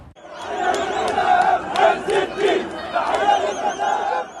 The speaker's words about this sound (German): Jubel und Freude auch im Westjordanland. Auf Schultern trägt eine Menschenmenge den 17-jährigen Palästinenser